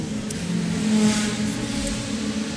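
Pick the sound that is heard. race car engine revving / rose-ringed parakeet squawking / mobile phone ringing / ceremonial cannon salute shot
race car engine revving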